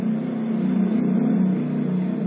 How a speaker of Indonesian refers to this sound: ya, ya, selain itu ada motor lewat